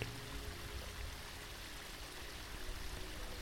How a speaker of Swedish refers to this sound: Så på avstånd hör du ljudet av vatten. Du går mot vattnet kommer fram till en lagun med ett vattenfall som faller längs en bergsvägg.